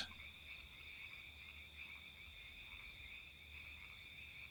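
A steady chorus of frogs croaking in a continuous, high-pitched trill, with a low background hum underneath and no one speaking.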